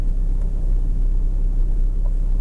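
car engine running

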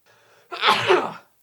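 sneeze

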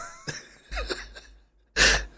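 blowing nose

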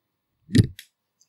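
microphone falling over

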